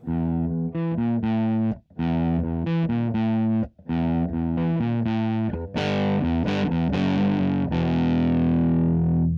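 Loud, heavily distorted electric guitar playing chunky riffs with brief pauses between phrases, building into a denser, fuller wall of metal guitar toward the end. No voices.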